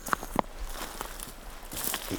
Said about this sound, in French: j'aime bien aussi ce son-là, tu vois, le, craquement. Euh, craquement des feuilles.